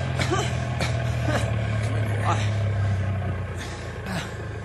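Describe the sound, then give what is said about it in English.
A truck engine rumbles low, its steady drone easing off near the end as the vehicle slows to a stop, with brief indistinct voices and clatter over it. “I'll stop the truck.”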